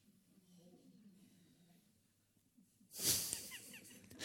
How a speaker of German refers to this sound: Da schnauft sie in der ersten Reihe.